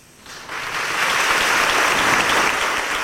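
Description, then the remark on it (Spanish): A crowd of brotherhood members bursts into applause with a volley of fireworks, greeting the announcement that Nuestra Señora del Rocío will be canonically crowned, at the blessing and reopening of the Templo de Santiago. The applause swells within the first second into loud, dense, steady clapping, sustained to the end with no voices standing out. “Anuncio que, como escuchan, fue saludado por los hermanos con aplausos y una salva de cohetería.”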